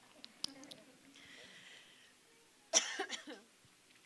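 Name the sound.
coughing fit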